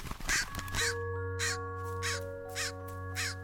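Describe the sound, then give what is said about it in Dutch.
A raven caws about six times in a steady, evenly spaced series, each call a harsh, rasping burst, with a sustained low humming tone running underneath throughout. “De raaf werd al gauw mijn boezemvriend.”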